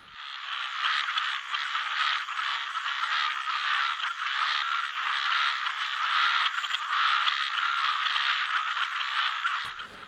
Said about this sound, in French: des sons de la nature et de l'environnement de ce petit village dans la forêt amazonienne